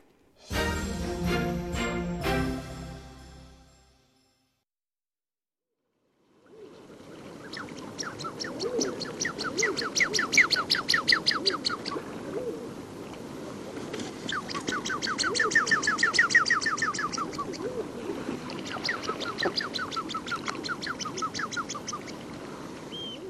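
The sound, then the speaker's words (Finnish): Common shelduck calls in a sustained, busy chorus of rapid rattling, chattering notes that swell and fade, following a brief musical jingle and a moment of silence. “Sehän kuulostaa kuin olisi joku moottoriviallinen traktori tai vastaava lähdössä käyntiin, mutta kyse ei ole kuitenkaan siitä, vaan viikon luontoääni, viikon 14 luontoääni on ristisorsa.”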